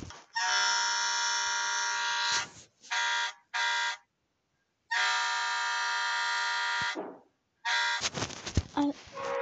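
A loud truck horn blares in several long harmonic blasts with short gaps between them, close and piercing, followed by a few choppier honks at the end.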